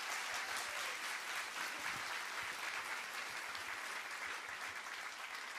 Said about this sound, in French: Voilà notre staff cadeau. Est-ce qu'on peut les applaudir vraiment bien fort